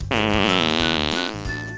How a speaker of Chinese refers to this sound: …放了一个超级大屁！